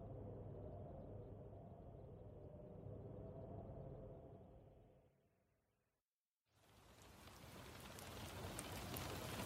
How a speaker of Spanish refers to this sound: La lluvia caía con delicadeza contra el piso.